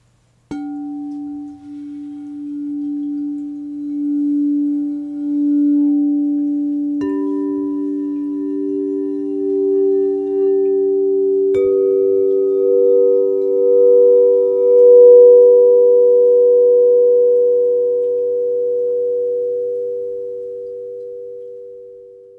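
Three pure, sustained sound healing tones enter one after another, about every five seconds, stacking into a smooth G major triad that hums steadily with no talking.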